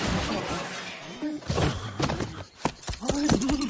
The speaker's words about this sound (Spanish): El Quijote está a punto de darles alcance, carga con su lanza, pero Avellaneda azuza más a los caballos y huyen. Rocinante se detiene de golpe, Quijote sale volando por encima de su montura y se estrella en el polvoriento suelo.